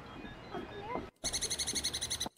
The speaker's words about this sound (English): Oh, that's cool. I'm not sure how many people would identify that as a squirrel.